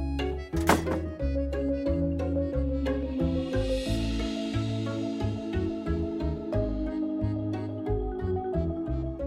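A door shuts with a single dull thud near the start as a man closes it behind himself, followed by a steady musical bed that keeps playing underneath. No one speaks.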